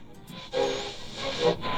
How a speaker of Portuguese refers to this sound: Opa, me parece que a gente está passando por uma interferência e quem está falando é o pessoal do podcast Frequência VQV.